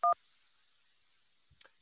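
A single short, loud touch-tone telephone beep as a caller's call comes in on a show's phone lines, followed by near silence and a couple of faint clicks as the line connects. No one speaks.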